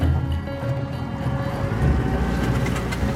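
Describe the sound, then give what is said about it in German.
A moving boat on the Amazon churns through water as it turns into a river mouth, with a steady low engine drone and the rushing hiss of spray splashing up around the hull, growing a bit louder toward the end. “Gischt spritzt. Wir biegen in die Mündung ein.”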